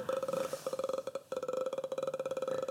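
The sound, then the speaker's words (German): A voice imitates a continuous croaking burp, a rapid rattling pulse sustained for a few seconds with one brief break, loud. “also der rülpst praktisch so dauerhaft.”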